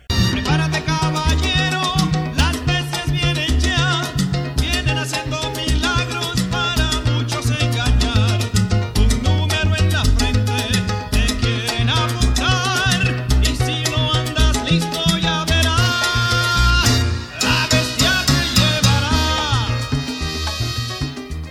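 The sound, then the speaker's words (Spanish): An old salsa recording from many years ago plays loudly throughout, driven by rhythmic piano montunos over a steady bass line and percussion, with brass-like bright accents and no talking. “Escúchelo al piano de … en la interpretación de hace muchos años”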